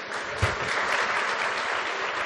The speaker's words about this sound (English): All of you who are clapping, and what would you recommend?